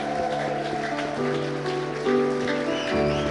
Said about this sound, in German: aber ich möchte allen danken, die mitgewirkt haben und die heute das so schön gemacht haben, diesen, äh, diesen Abend. Lasst uns einen kräftigen Applaus geben.